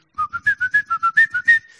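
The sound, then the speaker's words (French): A person whistles an imitation of blackbird song: about ten short, quick notes in an even rhythm, stepping up and down in pitch, ending on a faint held tone. “Et le merle, le merle fait”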